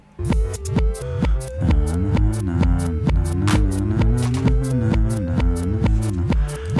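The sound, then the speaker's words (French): Music played backwards: a steady, pulsing beat with swelling, sucked-in notes and a warm bass line wobbling underneath, loud and continuous with no voices. “Quand on reverse, ça fait comme ça.”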